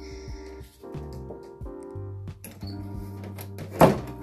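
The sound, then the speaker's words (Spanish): A person closes a door with a single solid thump near the end, sharp, over a steady tonal background with a low hum. “Cerré la puerta.”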